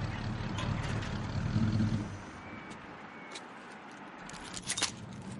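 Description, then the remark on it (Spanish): At night, a van's engine rumbles low as it rolls up in front of a locksmith's shop, then the motor cuts out after about two seconds, leaving quiet hiss and a few faint clicks and knocks. “De noche una furgoneta se detiene frente a una cerrajería.”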